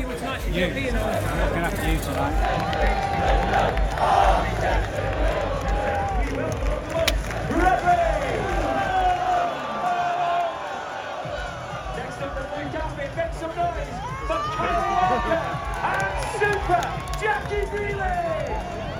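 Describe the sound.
A big crowd of fans cheers and shouts at the arrival of the Manchester City team bus, with blue smoke: a dense, steady roar of many voices, with individual yells rising and falling above it. The noise stays loud throughout.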